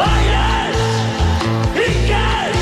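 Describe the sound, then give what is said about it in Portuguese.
A singer yells loudly over a driving pop track, the shouted voice arching up and down twice above a steady, punchy bass and drum groove. “É, pá, já não se grita assim na”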